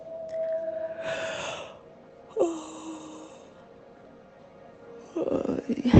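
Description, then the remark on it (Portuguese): Slow, deep breathing: two long, airy breaths drawn in and pushed out with a soft hiss, separated by a pause, over a faint steady hum, then a louder rustling burst at the end. “Respirando.”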